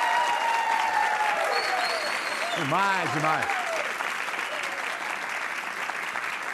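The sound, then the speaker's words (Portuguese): Steady, dense applause celebrating a show's first month on air fills the whole stretch at an even loudness, with a short, excited spoken exclamation rising over it partway through. “Pode aplaudir.”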